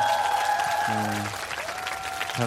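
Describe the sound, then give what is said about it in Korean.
An audience at a Kiss Radio busking show applauds the staff, clapping steadily throughout in a dense wash with scattered cheers and brief voices rising over it. “우리 스탭들이 정말 고생을 많이 했습니다 또 스탭들한테 박수를 좀부답을”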